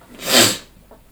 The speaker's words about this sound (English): And um, so, gotta sneeze again. Bless you.